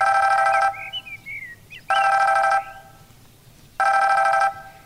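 A telephone rings three times in the morning in steady, evenly spaced bursts, each a loud buzzy electronic trill with pauses between. Faint bird chirps can be heard in the gaps.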